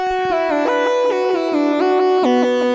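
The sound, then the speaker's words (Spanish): A Minilogue synthesizer patch, MIDI-linked from a Nord keyboard, is layered with a Rhodes-type electric piano sound and plays a short melodic phrase of held, stepping notes. It is bright, with the synth tone dominating and no voices. “Están sonando los dos, aunque sobre todo se oye el minilog.”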